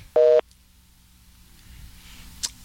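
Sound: telephone busy tone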